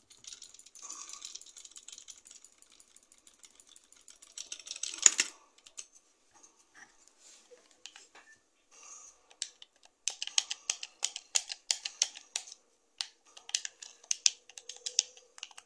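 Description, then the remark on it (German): Quick clicks of typing on a computer keyboard to edit, fairly quiet, with irregular bursts of keystrokes, a brief pause, then a denser run of rapid taps. No one speaks. “kurz auf meiner Tastatur ein bisschen editen.”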